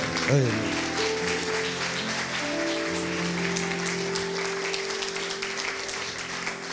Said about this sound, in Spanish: Otro aplauso fuerte a Dios.